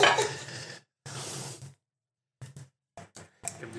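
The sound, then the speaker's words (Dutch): Wine being poured into a glass for tasting: two steady splashing, gurgling pours, then a few shorter broken trickles and a final burst, with no voices. “En wij gaan ondertussen een glas wijn inschenken en eens proeven.”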